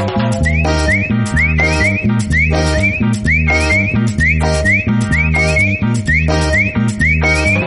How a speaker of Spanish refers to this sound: Bien muchachos, y ahora agarrando sus parejas y chiflando todos. Vamos, chiflando todos.